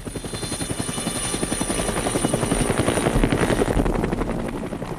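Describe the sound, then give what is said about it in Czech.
A heavy Soviet Mi-4 military helicopter flies by, its rotor blades producing a loud, steady rhythmic chopping over a deep engine drone that swells slightly toward the middle before easing off. “Vojenské letectvo v té době se již orientovalo na sovětskou leteckou techniku, a to i v oblasti vrtulníků, z nich jako první přišly těžké vrtulníky Mi-4, a to bylo v roce 1956, kdy vlastně došlo k nasazení prvních vrtulníků u nás.”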